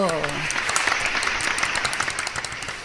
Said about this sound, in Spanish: Un aplauso.